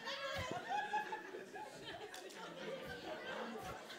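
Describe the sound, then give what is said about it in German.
A crowd murmurs and chatters in a church as an audience reacts to a tarantula being shown, many overlapping voices with scattered light laughter, steady and moderately loud with no single speaker standing out. “Ein Raunen geht durch die Church.”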